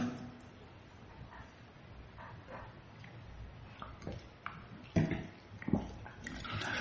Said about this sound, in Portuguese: Já cliquei, já está abrindo, já vai abrir, vou tomar água.